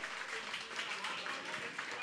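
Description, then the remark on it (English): An audience applauds team number nine, the only team to get the answer right, in a steady, dense wash of clapping that holds at an even level for about two seconds, with some crowd noise blended in. “Team number nine, round of applause.”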